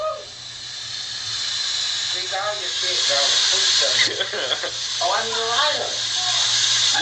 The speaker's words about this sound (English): There's a lot of the, a lot of shower noises happening.